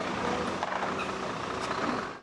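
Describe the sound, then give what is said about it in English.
Heavy diesel machinery rumbles steadily, a broad mechanical roar of huge backhoes and dump trucks run by Korean contractors, hauling off the remnants of military family housing units built nearly three decades ago at a demolition site, with occasional clanks and shifts in the engine noise. “Huge backhoes and dump trucks are hauling off the remnants of housing units built nearly three decades ago.”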